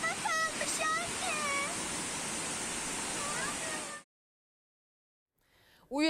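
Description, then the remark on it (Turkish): Rushing floodwater from the Ayancık stream, overflowing after heavy rain in Sinop, Turkey, and filling the town's roads, roars as a loud, steady hiss for about four seconds while voices shout over it, then it cuts abruptly to silence before a voice begins speaking. “Ayancık çayının şiddetli yağışın etkisiyle taştığı kentte yollar suyla doldu.”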